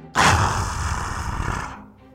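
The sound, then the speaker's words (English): A person voices a single loud, rough bark in imitation of a dire wolf, held for over a second before cutting off into quiet. “Give me a bark if I go attack.”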